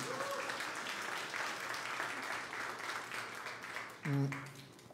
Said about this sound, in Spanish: ¿Lo crees? Entonces dale un aplauso bien fuerte.